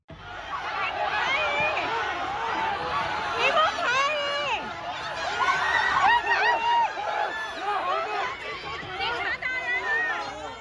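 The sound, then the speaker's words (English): Police detaining protesters amid a dense crowd in Shanghai, China, during protests over COVID-19 restrictions: many agitated voices shout and yell over one another, with raised cries rising and falling, loud, continuous for the whole stretch. “That's the sound of police detaining protesters in Shanghai, China last Sunday.”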